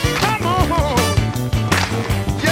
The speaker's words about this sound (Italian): Senti anche la sezione fiati tipica del rhythm and blues,